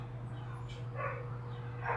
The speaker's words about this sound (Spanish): oh my god, I'm so sorry por el ruido de los perros.